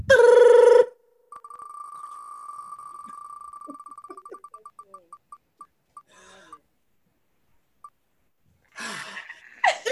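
A prize wheel spins with a rapid run of sharp, bright ticks that gradually slow and space out before stopping, preceded by a brief loud buzzing tone and followed by a short noisy burst.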